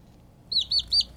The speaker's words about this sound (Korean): 저, 병아리 소리예요. 병아리 소리가 어느 음악에 나올까요? 이게 잘 들릴까요? 한 번 더요. 이 소리 찾아주시면 됩니다.